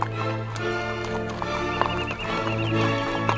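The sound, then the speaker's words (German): Horse hooves clip-clop in a steady rhythm while a horse neighs, the sounds clear over a constant low hum, with no one speaking. “Lasst uns nach Osten reiten, Prinz.”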